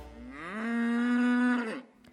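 A single long cow moo rises in pitch, holds steady for over a second, then tapers off, loud with no voices around it.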